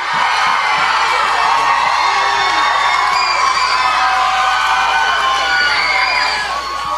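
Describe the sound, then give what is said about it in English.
A loud crowd cheers continuously for the Joker, with high children's shouts and whoops layered over a dense, steady roar that holds for the whole stretch before easing slightly at the end. “Let's uh, let's hear it for the Joker.”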